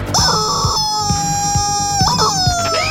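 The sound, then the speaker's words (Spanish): A loud, drawn-out chicken cry, shrill and squawking, with its pitch sliding up and down near the end, sounding over a steady rhythmic thumping in the background. “¿Vas a ser tú también otro Demóstenes? ¡Grito combate, pollo!”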